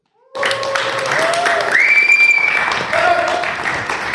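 A live audience in Maribor erupts in loud, sustained cheering and clapping, with whoops and high-pitched shouts rising above steady applause throughout.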